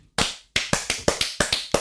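A short burst of applause: about eight crisp, sharp claps in a quick, fairly even rhythm, fairly loud, with no voices.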